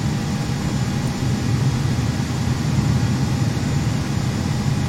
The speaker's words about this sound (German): Ah, jetzt. Jetzt rollen wir. Vorsichtig. Vorsichtig. Ich muss mal warten. Ich lasse mich dann noch ein Stückchen. Ja, ist ein schönes Flugzeug von Swiss Air, was wir hier fliegen.